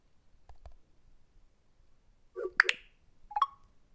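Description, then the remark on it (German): A quick double tap on a phone touchscreen to send a message: two sharp clicks in rapid succession, then a single short click a moment later, with faint soft taps earlier and no talking. “So, und jetzt einfach doppelt drauf tippen und dann wird es gesendet.”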